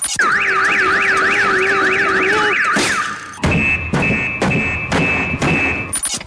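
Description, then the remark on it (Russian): A car alarm blares, cycling through its patterns: a rapid warbling whoop, then a steady tone, then a series of sharp, evenly spaced repeated beeps, loud and relentless throughout. “В голливудском фильме «Шум» Тим Робинс играет человека, которого сводит с ума непрекращающийся вой сигнализации автомобилей.”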